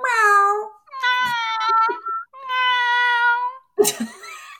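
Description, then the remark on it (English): A voice imitates a cat, letting out three drawn-out, whiny meows in close succession, loud, followed by a short breathy, noisy burst at the end. “Is that you, or do you have a kitty in your pants?”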